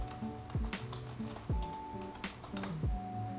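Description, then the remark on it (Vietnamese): Quick, irregular computer keyboard clicks tap along over steady background music that has deep, recurring bass thumps; no one speaks. “nên là hôm nay không có nhạc nền nhạc nền sẽ là tiếng noise tiếng xe chạy giờ tiếng ho tiếng quạt yeah cũng hợp lý đó mà tiếng đàn phiến nữa”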